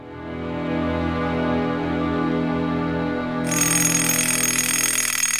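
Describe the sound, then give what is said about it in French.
An alarm clock rings loudly at three o'clock, a steady droning tone that turns into a harsher, rattling metallic jangle partway through, with no one speaking. “Le réveil sonne à trois heures.”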